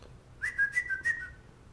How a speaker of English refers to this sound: So, Clap. Snap. Whistle.